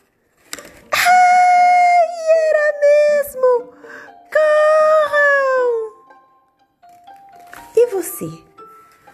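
A wolf howls in two long, loud, wavering cries that slowly slide downward in pitch, followed a moment later by a shorter, rougher yelp.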